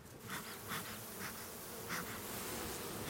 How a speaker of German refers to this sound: Jetzt nehme ich den Honigkamm runter und wir schauen in den Brutraum. Hier sehen wir Tausende von Bienen.